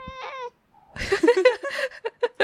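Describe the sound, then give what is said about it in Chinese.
A Japanese house cat meows in short, high-pitched bursts while sniffing a visitor's feet: first one clear drawn-out meow, then a quick run of squeaky, wavering little cries ending in brief chirps. “哎，像你你家的猫在闻闻我的脚， 奈豆奈豆， 现在我的我的脚被他们家的猫宠幸， 对，我的日本的猫， 对，日本猫， 来打个招呼，打招呼，打招呼。”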